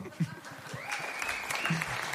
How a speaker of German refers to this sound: Ein Applaus!